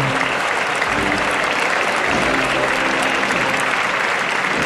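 A large crowd, including spectators in the stands and people on balconies, applauds steadily, thousands of hand claps blending into a dense, continuous wash of sound that stays loud and even from start to finish.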